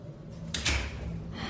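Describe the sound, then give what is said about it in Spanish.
A single door slams shut somewhere in the distance, a muffled thud with a brief echo over quiet room tone. “escucharon como una puerta de golpe se cerraba a lo lejos.”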